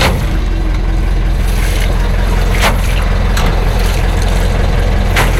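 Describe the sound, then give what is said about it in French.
A truck engine runs steadily, a loud, constant low rumble with a few sharp clicks and rattles over it, as bags are put in the truck to go to the cabin. No one speaks. “là on va mettre les poches dans le camion pour aller à la cabane.”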